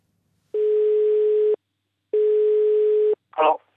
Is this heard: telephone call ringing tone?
yes